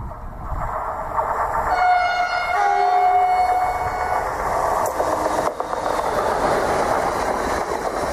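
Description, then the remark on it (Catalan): A non-stopping train heading to Girona roars through a station past a lowered barrier, its loud rumbling rush building quickly, with a brief horn tone early on before the steady rolling noise carries on. “Com has vist, ha passat un tren cap a Girona. Que anava directe.”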